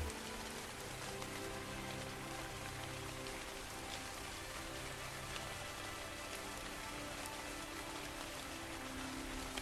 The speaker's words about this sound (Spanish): Poco a poco la lluvia empieza a amainar.